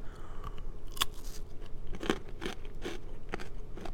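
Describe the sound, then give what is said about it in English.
A crisp bite into a pretzel rod dipped in milk chocolate and drizzled with dark chocolate, followed by a series of sharp, crackly crunches as it is chewed, irregular and fairly loud, with no talking. “this is your typical um, chocolate covered pretzel?”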